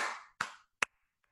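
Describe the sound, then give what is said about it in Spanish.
A single man claps his hands for himself in the morning: three times in an uneven rhythm, each sharp clap ringing out briefly, followed by a fourth much fainter clap. No one speaks. “Entonces me aplaudo a mí mismo y entonces me despierto alegre”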